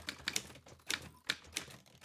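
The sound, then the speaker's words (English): Several typewriters in a typing pool clack in quick, uneven bursts as typists work at desks in an atrium. Sharp metallic keystrokes overlap, with no voices. “They want you for their typing pool.”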